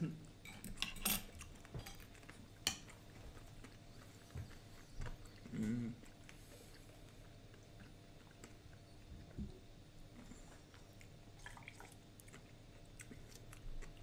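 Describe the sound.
Quiet chewing of curry pickled herring with scattered sharp clinks of cutlery against a plate, mostly in the first few seconds, and a brief murmured voice over a low background hum.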